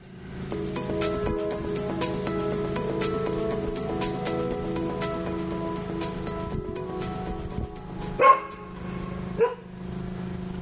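A dog named Sophie vocalizes steadily for several seconds, a drawn-out whiny sound, then lets out two sharp, louder barks near the end. No one speaks.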